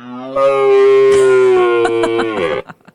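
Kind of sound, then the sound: animal, deer stag roaring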